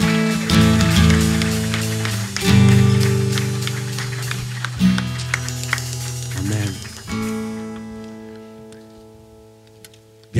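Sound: audience applause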